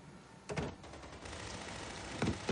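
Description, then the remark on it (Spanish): A burst of gunfire in a shootout: several sharp, cracking shots fire in quick succession, then a short pause before a few more follow near the end, with no voices. “Al oír el tiroteo, los dos policías salen corriendo y bajan por una escalera exterior de incendios.”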